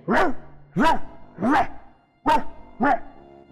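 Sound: voice imitating dog barking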